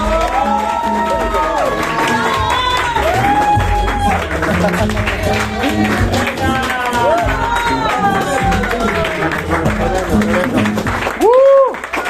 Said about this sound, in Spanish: vamos a darle un fuerte aplauso a nuestro diamante